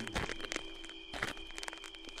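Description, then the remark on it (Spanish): A series of footsteps at an unhurried pace inside a house, each step a soft thud, moderately quiet over a steady background hum. No one speaks. “Al paso de los minutos, escuché unos pasos y pensé, Qué bueno que me traje la rebanada de pastel a la recámara de mi mamá, porque de seguro él se lo hubiera comido.”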